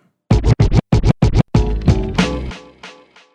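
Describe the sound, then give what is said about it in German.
A brief snippet of a German rap track, number 7 on an album: five quick chopped, scratch-like stabs in a tight rhythm, then a sustained, full musical phrase that fades out. Loud, with no clear vocals. “Hören wir uns mal an, ne? … ist Nummer 7.”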